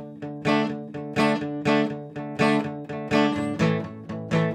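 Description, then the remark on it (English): Steady guitar strumming with a repeating rhythm, where certain accented chords ring out louder and punchier than the rest, creating a pulsing pattern with no voices. “individual notes punching out, individual chords punching out every now and again.”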